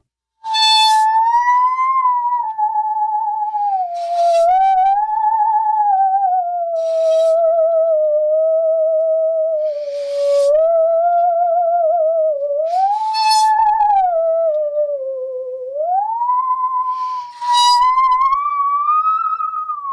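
A musical saw played with a bow in a studio, its eerie, sustained tone gliding slowly up and down in a wavering melody, loud, with occasional soft scraping accents and no talking.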